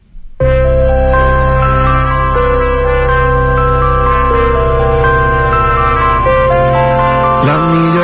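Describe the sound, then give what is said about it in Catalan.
A Catalan-language Christmas pop song from a 2023 Christmas album made with guest artists starts abruptly after a brief moment of quiet, with loud, full sustained chords and layered melodic lines playing steady throughout, with a shift in the final second. “han publicat un disc de Nadal amb 17 cançons en col·laboració amb 33 artistes.”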